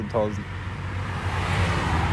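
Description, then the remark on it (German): Steady road traffic rumbles, a broad low roar of many cars going past that rises slightly toward the end, with a brief voice-like sound at the start. “Jetzt kommen hier aber auch schon wieder viele Autos.”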